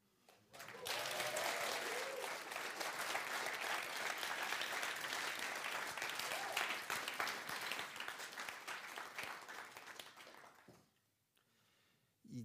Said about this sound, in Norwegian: Er det bare spredt applaus?